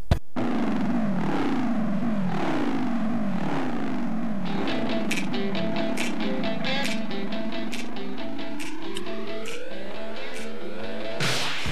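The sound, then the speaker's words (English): A loud, continuous aircraft engine starts up in a driveway in the morning as it gets ready to fly into work. Its whine sweeps up and down in pitch and climbs steadily, with sharp bursts and clatter over the roar and no talking. “that was the sound of him getting ready to fly into work.”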